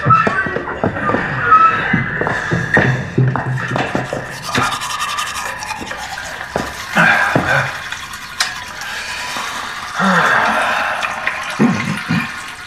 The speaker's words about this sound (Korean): 곧장 세면대로 간 노숙자는 거울을 들여다보다가 허리를 숙여 머리를 감기 시작했다. 손바닥에 물비누를 듬뿍 받아 떡진 머리를 힘차게 문질렀다.